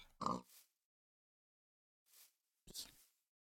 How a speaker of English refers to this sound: No, no, look at this pig over here.